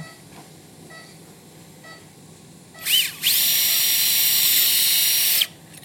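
A high-pitched surgical drill whines up briefly, then runs steadily for about two seconds while boring a tunnel in bone along the inner (medial) edge of the arm during elbow ligament surgery, before cutting off abruptly, with a quiet hum behind it.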